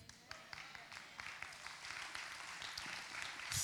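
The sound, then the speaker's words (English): Light, scattered golf clap from an audience: a few sparse, polite hand claps with an irregular rhythm, building slightly toward the end, with no voices over it. “thank you for that golf clap this morning.”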